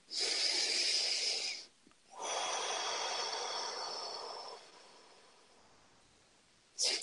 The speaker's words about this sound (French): Une respiration.